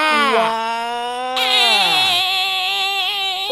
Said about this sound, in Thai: เสียงอะไรเนี่ย เสียงประตูห้องสมุดใต้ทะเล เปิดแล้วโอ้ยทำไมเสียงประตูดังแปลกๆยังไงไม่รู้